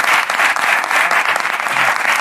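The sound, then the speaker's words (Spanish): A steady burst of applause from a crowd for Jorge Ponce, who is joining online from the street, dense and continuous clapping at a fairly loud level throughout, with no voices standing out. “Y está ahí Jorge Ponce, un aplauso para él, que está en la calle, online.”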